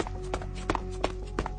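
Heavy footsteps thud in a slow, even rhythm, about four dull, weighty impacts coming from the staircase, over a low steady hum, with no voices.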